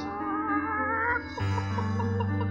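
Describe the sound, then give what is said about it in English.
Chickens cluck in a quick, repeating patter from an old houseboat on a river at night, over a steady, droning musical tone that shifts lower partway through, moderately loud, with no one speaking. “It was definitely chickens.”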